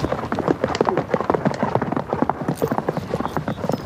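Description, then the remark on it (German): The hooves of a horse being ridden on a trail ride pound out a quick, rolling gallop rhythm, steady, with dense repeated thuds running the whole way through and no voices. “Nach einem schnellen Galopp, der aber nie hektisch, sondern mehr schaukelnd rhythmisch bleibt,”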